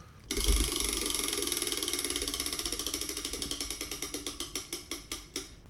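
A prize wheel of movie titles is spun to pick a movie, with a rapid, loud stream of sharp ratcheting clicks that gradually slow and spread apart as the wheel loses speed. There is no talking.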